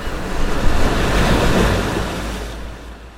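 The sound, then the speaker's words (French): A broad, steady rush of ocean surf fills the air, a continuous roar of breaking waves with wind mixed in, swelling slightly then easing off toward the end. “Souffle immense de la mer.”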